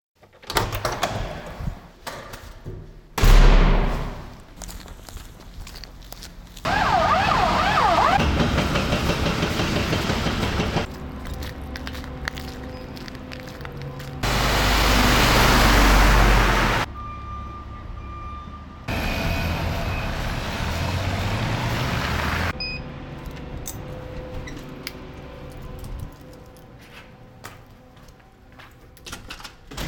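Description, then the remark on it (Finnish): Busy city street traffic on a morning commute to work: rumbling vehicles, a heavy door sliding and thudding, and short electronic beeps, coming in loud, abrupt stretches separated by quieter moments, with no one talking. “Siltä kuulostaa mun työmatka joka ikinen aamu.”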